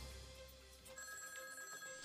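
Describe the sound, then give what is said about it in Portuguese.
A telephone rings as a caller phones in to a radio show, with a steady, bright electronic tone, sustained tonal bands holding through the short burst with no voices over it. “E o nosso sino mais uma vez tocou.”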